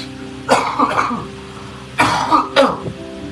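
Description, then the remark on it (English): Two harsh bursts of coughing, each a quick cluster of rough hacks followed by throat clearing, separated by a short pause, loud with no talking. “ah, sorry about that. Pagaling na. Pagaling ni Ubo.”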